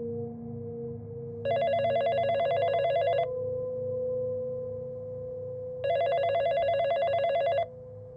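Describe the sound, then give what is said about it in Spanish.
A cell phone rings twice in the morning with a call from a deceased father's cell phone, each ring a bright, trilling electronic tone lasting almost two seconds with a pause between, heard over a low steady background hum. “Y pues bueno, al día siguiente de que falleciera mi papá, por la mañana pasó algo muy extraño, pues recibí una llamada de su celular.”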